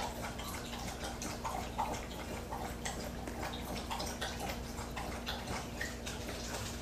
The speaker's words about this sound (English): Sorry, I'm waiting for Buster to stop drinking his water.